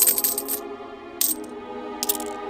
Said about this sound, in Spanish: A la izquierda se ubican la vanidad, que se contempla en un espejo, y la avaricia agitando una bolsa con monedas de oro.